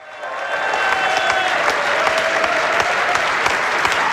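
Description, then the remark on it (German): Dense, sustained applause from party members honouring former Federal Councillor Uli Maurer for his 14 years in the Federal Council, loud and steady throughout, with rapid overlapping claps and a few whistles or cheers rising above the clapping. “Mit frenetischem Applaus.”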